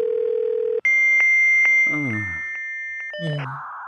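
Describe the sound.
A steady telephone dial tone gives way to sustained beeping tones and connection chirps, with a short burst of voice-like sound, ending in a wash of line noise as a call to Chemnitz connects.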